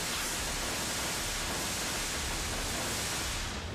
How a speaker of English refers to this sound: So for those listening, that's a, every whoosh was a rocket taking off, obviously.